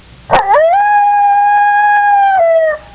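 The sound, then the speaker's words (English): A coyote howl: one loud, sustained cry that swoops up sharply, holds a steady high note for about two seconds, then drops away at the end. No one is talking. “What do you think it is? A coyote.”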